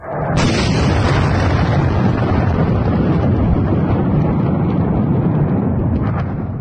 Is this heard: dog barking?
no